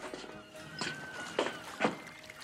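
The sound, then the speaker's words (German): Three or four footsteps of a ship's cook hauling sacks of potatoes and onions land at an uneven pace, each louder than the last as the walker draws nearer, over a faint steady background hum. “Das Geräusch sich nähernder Schritte lässt Horace aus seinem Tagtraum aufschrecken.”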